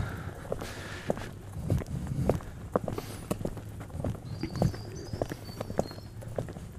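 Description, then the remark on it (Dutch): Footsteps walk at a steady pace on hard ground, passing under a small gateway, each step a sharp click, with a faint background hum and a brief high chirp midway. “We lopen hier nog onder een eh, poortje door.”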